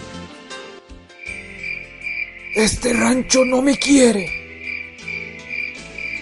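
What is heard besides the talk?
cricket chirping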